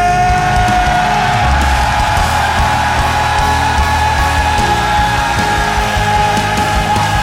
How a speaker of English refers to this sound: Are you ready? On the count of three men in this room, let them hear the wolf's cry. One, Hallelujah. Two. Somebody shout three. Yeah.